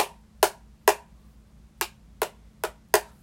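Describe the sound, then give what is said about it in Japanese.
Six light, hollow taps on the side of an upturned microwave-safe plastic food container, the kind sold at 100-yen shops, struck in a loose, uneven rhythm over a quiet low hum, with no talking. “それは底辺はこんな音ですねで側面はこんな音”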